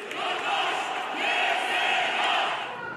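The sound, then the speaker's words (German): An angry crowd of hundreds of men, supporters of the founder of the Turkish Republic, shouts and roars in unison in the Istanbul courthouse, protesting the referendum and insulting the Turkish electoral council: a dense, sustained wall of raised voices that swells and surges steadily without letting up. “Hunderte Anhänger des türkischen Republikgründers protestieren lautstark im Istanbuler Gerichtspalast”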